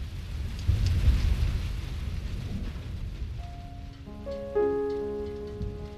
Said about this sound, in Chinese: 雨点滴在家门前的小水塘里，打在平房的玻璃上，从屋檐上滴下来，各种各样的雨声交汇在一起